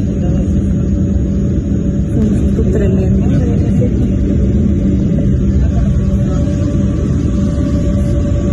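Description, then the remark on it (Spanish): Airliner engines rumble loudly and steadily throughout, a deep, dense, unbroken roar, while a person speaks briefly over the noise, as the takeoff of a flight to Mérida is aborted because of air traffic at the Santa Lucía air base. “El despegue fue abortado por tráfico aéreo aquí en la base de Santa Lucía.”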